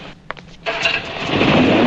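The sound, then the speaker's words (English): A couple of sharp clicks and a brief cranking sputter, then an old car engine catches and roars into a steady, rising rumble. “Mrs. Butterworth gives him a change of clothes and lets him borrow his old car, as we'll hear in this clip.”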